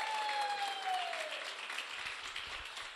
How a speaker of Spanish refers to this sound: Dele el aplauso más fuerte a las muchachas.